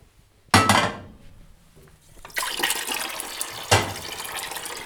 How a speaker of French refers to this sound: Donc là, on a nettoyé nos asperges, on va mettre de l'eau à chauffer. On va remplir une grande casserole d'eau qu'on va bien saler.